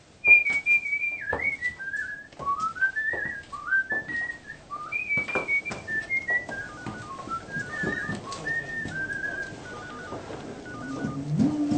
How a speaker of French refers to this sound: Sur le chemin de la rédaction, il siffle une mélodie. Écoutez la scène. Reconnaissez-vous cette mélodie Savez-vous aussi qui l'a composée